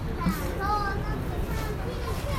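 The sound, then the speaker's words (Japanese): Children's voices rise and fall through steady outdoor background noise, faint and scattered, like kids playing across an open park on a public holiday. “こういう時代ですから子供近くにてますけど、はい、暴走族もいるし、ね、まあファミリーもいるみたいな、ね、そんな感じですね”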